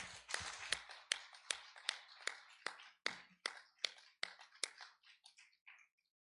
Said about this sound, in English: let's just give the Lord another hand clap of praise right now.